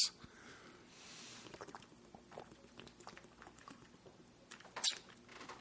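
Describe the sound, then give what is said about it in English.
Someone takes a drink: soft wet sloshing and mouth clicks over several seconds, then one louder gulp near the end, with no talking. “Big gulp. Sorry.”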